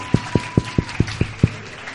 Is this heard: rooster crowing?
no